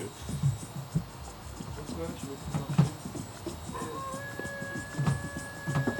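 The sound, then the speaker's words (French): A rooster crows in the background, a high, drawn-out harmonic call that holds steady for about two seconds near the end, under low mumbling voices and soft thumps. “Il y un coq là derrière, non C'est ça, ouais.”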